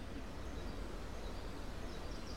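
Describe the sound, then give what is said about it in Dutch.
Quiet, steady rustling of wind through trees on the grounds of the Den Alerdink estate in Laag Zutem, countryside near Zwolle, during the Gardenista 2022 festival, fills the background, with faint bird chirps barely poking through. No one speaks. “En je hoort waarschijnlijk op de achtergrond de landgoedgeluiden van de ruisende wind door de bomen en de zingende vogeltjes.”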